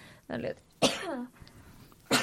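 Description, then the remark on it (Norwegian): A sudden sneeze with a sharp noisy burst and a voiced, falling tail, framed by a quick intake of breath before it and another short breathy burst afterward. “Prosit.”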